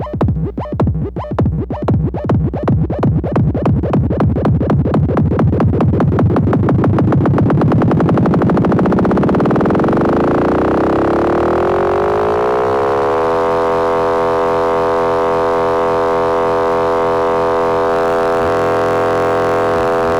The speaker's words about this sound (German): Geile bei dem äh, Sequenzer ist, den kann man so schnell 10.000 Beats per Minute spielen lassen, dass er im Prinzip, dadurch, dass er dann ganz schnell nur noch spielt, wie ein äh, Drone, also wie ein einzelner Ton ist. Also aus Rhythmus wird Klang.